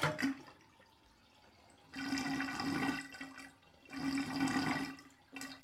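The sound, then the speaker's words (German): Bathtub water drains away with a rushing, gurgling swirl that surges loudly twice, easing back to a quieter trickle between the surges, with no voices. “Habe gespielt wie Badewanne leer.”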